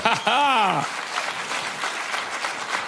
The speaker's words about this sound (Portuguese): Dê para ele uma forte salva de palmas.